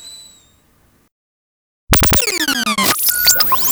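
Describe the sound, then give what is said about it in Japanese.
A faint high whistle fades out and falls silent, then a loud, shrill whistling of steam bursts in, its pitch sweeping and wavering over a hissing rush, with no one talking. “いい音なります。湯気の音。”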